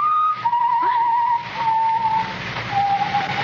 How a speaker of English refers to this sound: Well, of course I hear it. It's someone whistling